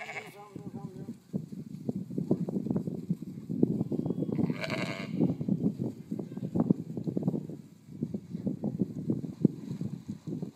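Sheep bleat repeatedly in overlapping calls from a flock, with a busy murmur of animal sounds filling the background throughout.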